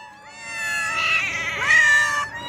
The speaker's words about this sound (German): Sie hat mir gesagt, dass die Katzen an bestimmten Orten dann schon auf die Tierschützerinnen warten und lautstark ihr Futter einfordern.